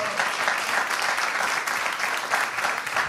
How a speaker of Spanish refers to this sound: Como un aplauso, por favor.